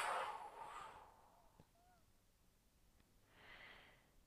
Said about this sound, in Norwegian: Og så gjør vi det en siste gang. Pust godt inn. Og hold pusten. Og pust ut.